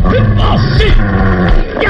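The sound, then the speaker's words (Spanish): Loud snarling and yelping from two furious wolves lunging at a child, who runs back to a cave, with overlapping growls and sharp yips filling the whole stretch without pause. “Los lobos furiosos se lanzan contra el niño y este corre regresando a la cueva.”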